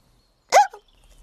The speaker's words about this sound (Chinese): 哦，天哪，蚯蚓，你吃的泥土让你打嗝了。